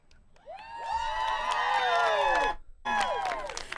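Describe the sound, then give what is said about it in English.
A crowd standing up bursts into loud, sustained cheering and whooping, many voices shouting together, briefly dropping off before surging again near the end. “You and then you zip around everyone's standing up cheering.”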